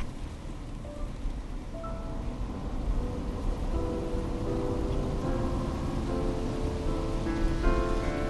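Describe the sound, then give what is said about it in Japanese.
Steady rain patters against a car window over a low, rumbling interior drone, with faint tonal hums rising and falling as the vehicle drives on. No one speaks. “窓を伝う雨粒が後ろに流れていく雨の日に使った湯船の中みたいだなと思った”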